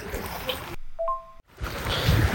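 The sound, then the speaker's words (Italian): Steady rush of surf washing onto a beach shoreline about one metre away, interrupted midway by a short quiet gap with a brief two-note electronic beep before the waves return. “Ragazzi, se sentite rumore è perché sono a un metro dal mare, sono in battigia sulla spiaggia.”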